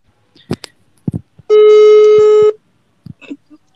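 A few scattered short taps, then a loud, steady telephone ring tone holds for about a second before cutting off, followed by more soft clicks; no one speaks.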